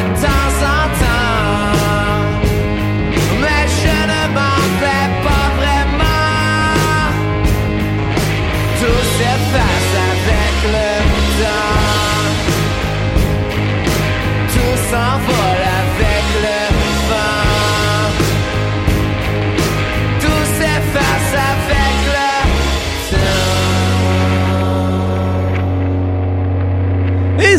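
A song plays on the radio, a dense full-band arrangement at a steady, loud level, settling into long sustained chords that thin out over the last few seconds.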